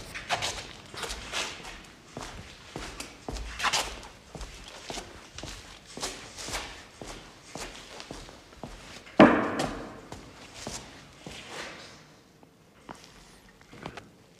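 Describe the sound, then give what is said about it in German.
Steady footsteps in lined sneakers crunch and scuff over the gritty, uneven ground of a construction site at a walking pace, with a sudden louder thump midway and the steps fading slightly toward the end. “Und damit bin ich über eine Baustelle. Also gefütterte Turnschuhe.”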